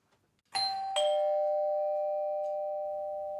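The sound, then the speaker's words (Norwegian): A two-tone doorbell at the door of Olav Årås's home at Maihaugen chimes once, a bright higher note followed by a lower one that rings on and fades slowly for several seconds, with no voices. “Da er det bare å skru tiden tilbake til 2001 og ringe på døren hos Olav Årås på Maihaugen.”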